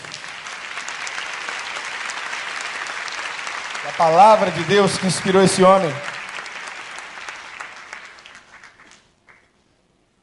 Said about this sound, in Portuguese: Pode aplaudir a Jesus Cristo.